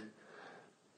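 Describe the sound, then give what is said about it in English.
A dog sniffs and whimpers softly in its sleep, a brief, quiet burst of breathy snuffling with a faint whiny tone at the start, no voices. “that's my dog dreaming.”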